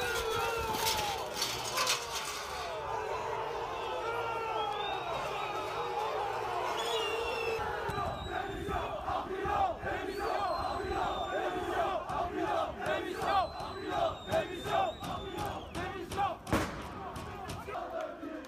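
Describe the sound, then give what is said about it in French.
About a hundred angry Nîmes football supporters at the Costières stadium shout and jeer continuously as the players' bus arrives before the match, voices overlapping in a rough, rising clamor, punctuated by a few sharp bangs and thuds, with whistles cutting through near the end. “D'ailleurs, écoutez avant la rencontre déjà l'accueil très hostile du bus des joueurs nîmois aux Costières par une centaine de supporters en colère qui réclament la démission de Jérôme Arpinon.”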